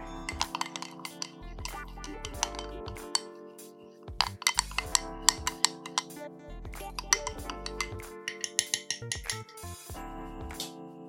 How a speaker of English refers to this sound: So got some milk, got some spices, so that's cinnamon, mixed spice, and I've got some nutmeg. I'm just going to add in the pumpkin and then stir.